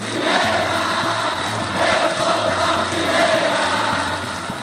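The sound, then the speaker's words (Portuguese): A dense, roaring crowd of Náutico football fans cheers and shouts continuously before the final whistle, with Náutico leading Ituano 2–0, a broad wash of many voices swelling in waves with a steady low rumble underneath. “Antes mesmo do jogo terminar, a torcida do Náutico já é só felicidade, soltando da garganta um grito que estava preso por longos 12 anos.”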